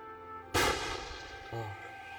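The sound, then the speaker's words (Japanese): A loud, sudden burst of gunfire booming rings out and decays, followed a second later by a softer, lower blast, all over a steady droning background; the gunfire is approaching. “あ、銃声が近づいてくる。”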